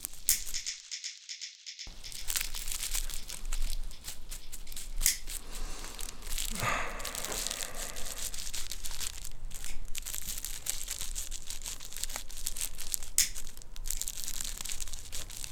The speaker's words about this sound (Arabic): دوري لكم سيجارة